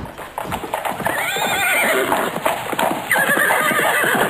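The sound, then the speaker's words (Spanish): Horses whinny loudly with rising, quavering neighs while hooves clip-clop steadily beneath, a busy mix of several animals that continues throughout. “Luego llegaron los caballos”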